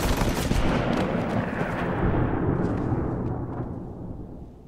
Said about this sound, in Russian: Но полиция не намерена больше терпеть акцию неповиновения. Специально прибывший в город отряд открывает стрельбу по демонстрации.